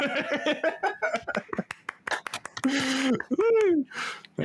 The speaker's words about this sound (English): Thank you. Your, your claps, so uh, everything.